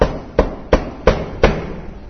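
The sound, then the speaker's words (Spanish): Five sharp, evenly spaced knocks on a door, each a hard thud with a short decay, landing at a steady moderate pace with no voices around them. “Golpean la puerta.”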